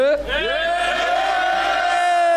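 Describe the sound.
An audience at a rap battle cheers and yells for one of the rappers, a loud, sustained roar of raised voices that swells upward at the start and holds steady for about two seconds.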